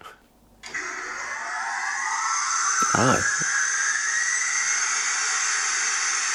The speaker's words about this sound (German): und eine Maschine? Verdammt, was für eine Maschine? Eine Windmaschine. Ah, ah, stimmt, die Turbine.